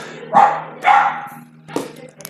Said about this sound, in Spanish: Si escuchan algo afuera es porque está mi perra ladrando